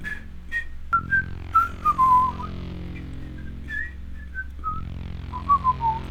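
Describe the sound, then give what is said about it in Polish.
Someone whistles a wandering melody in short, sliding phrases, clear, with a steady low hum underneath and no talking. “Robi krok, gwizdzy coś.”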